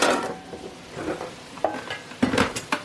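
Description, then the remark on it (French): Vegetables sizzle and hiss in a wok while a chicken broth is being prepared, a steady frying crackle punctuated by several sharp scraping and clinking stirs of a utensil against the pan. “Hop, pendant ce temps que les légumes y reviennent un peu.”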